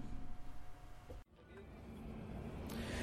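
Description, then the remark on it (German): Steady low rumble from inside a moving bus carrying fans to a home football match against Bayern Munich, engine and road noise droning continuously, with a brief dip partway through before the drone builds again. “Junge, Junge, Junge, jetzt fahren wir zum 142. Mal mit diesem Bus zu irgendeinem Spiel.”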